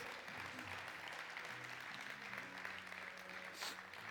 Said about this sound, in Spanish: ¿Cuántos dicen amén? ¿Cuántos dicen gloria a Dios? Denle un aplauso a Aarón